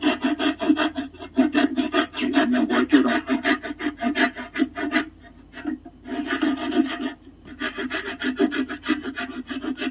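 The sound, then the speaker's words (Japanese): A pruning saw rasps steadily through wood in quick back-and-forth strokes, fairly loud, with a few brief pauses between bursts of cutting; the wood being cut is timber for supports. “あの、家にあった枝切り用のノコギリでやってるっていうひどいことをやってます。”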